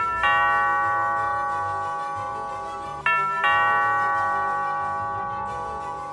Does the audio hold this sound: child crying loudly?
no